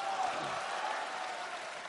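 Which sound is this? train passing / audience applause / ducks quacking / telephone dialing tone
audience applause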